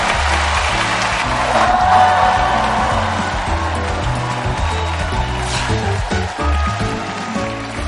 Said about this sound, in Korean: 아, 패널 분들 모시겠습니다. 그럼 박수로 환영해 주시기 바랍니다.